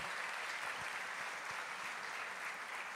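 A church audience applauds to the Lord in welcome of a counselor, with steady, dense clapping that fills the whole stretch, a continuous crackle of many hands without a clear beat and no voices standing out.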